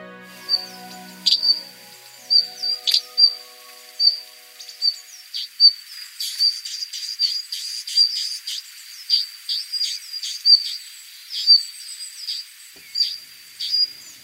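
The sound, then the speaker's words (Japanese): A Japanese leaf warbler sings at a lighthouse halfway up Kamishima, a 171-metre island mountain in the sea, during the migration season. It gives a long series of sharp, high-pitched chirping notes in a quick, steady rhythm, over a continuous thin high buzz like a cricket. No voices are heard. “上島は海に浮かぶ標高171メートルの山です中腹にある灯台で渡り鳥を待ち構えているとメボソムシクイの鳴き声が聞こえてきました”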